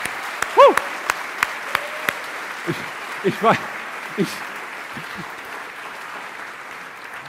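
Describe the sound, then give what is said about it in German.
Scattered clapping from an audience in the Free Evangelical Church (FEG) in Bonn, a light patter of many hands, while a man speaks briefly over it in short halting phrases. “Ich finde, da gehört mal ein kleiner Applaus dazu.”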